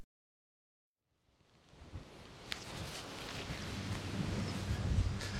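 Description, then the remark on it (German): After a moment of silence, a strong wind rises and roars steadily, with a deep buffeting rumble and brief gusty surges, growing louder toward the end. “Und wie man hört, ist es irgendwie sehr windig.”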